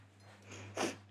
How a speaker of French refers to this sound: J'espère que j'ai pas trop reniflé. Hein. Tic, tic. Non, je suis pas enrhumée, mais je crois que c'est les platanes.